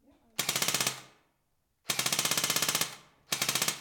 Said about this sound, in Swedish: Något annat som djur inte brukar tycka är så kul det är att bli skjutna. Och oj vad djur har blivit skjutna!